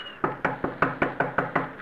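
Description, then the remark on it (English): A steady series of about eight knocks on the wooden door of a shack made of paper, paste and wire on Belmar's Island, evenly spaced and quick, moderately loud, with no voices. “I knocked politely.”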